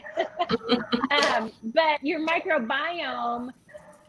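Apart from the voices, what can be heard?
dogs barking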